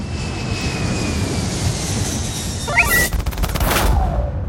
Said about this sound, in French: quand on a une console qui fait le bruit d'un Airbus.